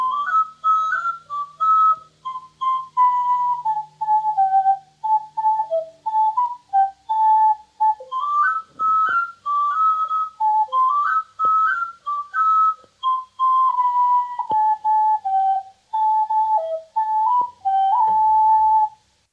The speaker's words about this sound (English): introduced by Mona Douglas to play the dance tune on his tin whistle of Tob Matalier, as he did on the Manx Folk Dance Society's LP of the music for the Manx dances, Dansen Teach Fanning, but, as I say, called Tob Matalier rather than Ilium.